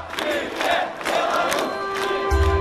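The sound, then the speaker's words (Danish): A large crowd of protesters at a massive peaceful protest in Belarus, calling for an end to the government, chants together in loud, rhythmic bursts of massed voices, with a steady roar beneath and a low hum joining near the end. “Since the summer, massive peaceful protests have gripped Belarus, calling for an end to what's known as Europe's last dictatorship.”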